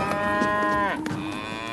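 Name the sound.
cow mooing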